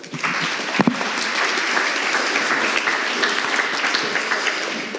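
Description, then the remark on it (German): An audience applauds steadily for about five seconds, a dense, loud wash of many hands clapping with no pauses, and a brief sharper burst near the start. “Ah, Applaus für”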